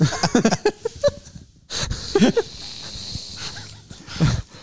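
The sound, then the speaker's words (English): A person imitates a wild turkey gobble by voice alone, without a game call in the mouth, with a quick, rattling burst of throaty warbles, followed by breathy noise and a couple of shorter vocal bursts. “I can do a, a pretty good uh, turkey call without a call, but uh, Oh, let's hear it.”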